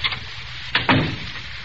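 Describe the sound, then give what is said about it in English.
The door of a theater box swings shut with a quick latch click followed by a dull thud, standing alone against a quiet background. “Uh, hold the door open. That's got it. Now, close the door.”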